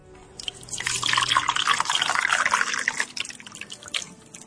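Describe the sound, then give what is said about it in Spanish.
A steady stream of hot water pours into a teapot over tea leaves for a few seconds, a splashy gurgle that swells and then tapers off, with no voices. “A continuación, echa las hojas del té y vuelve a llenarla de agua caliente.”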